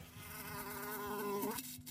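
A wasp buzzes steadily inside an IKEA lamp, a droning insect hum with shifting pitch that rises and then cuts off near the end as the wasp dies.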